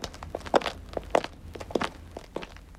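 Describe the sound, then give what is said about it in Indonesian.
Steady footsteps of two friends walking to a university campus at an even pace, around four or five distinct steps landing with a firm, slightly crunchy tread, clear, with no one talking. “coba dengarkan apa yang dikatakan oleh Chris dan Ron, temannya, sementara mereka berjalan ke kampus universitas”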